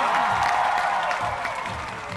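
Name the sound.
audience applause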